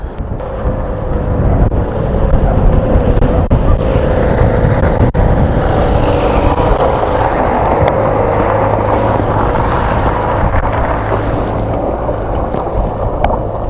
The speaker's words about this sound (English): Oh, and of course, there's a big truck coming. This truck's going to come just as the light passes, and I'm going to be screwed.